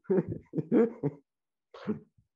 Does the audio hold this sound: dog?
yes